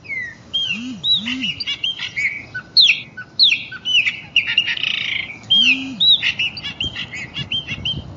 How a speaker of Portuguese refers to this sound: Um passarinho cantando aqui, uma árvore do lado ali